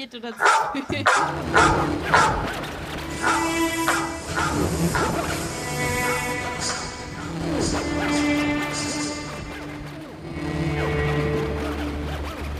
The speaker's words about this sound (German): Ja, in dem Sinne würde ich sagen, hat nicht so wirklich funktioniert mit dem Hund, oder? Der Hund, der Hund war zu leise.